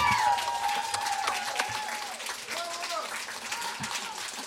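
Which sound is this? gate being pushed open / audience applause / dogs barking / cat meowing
audience applause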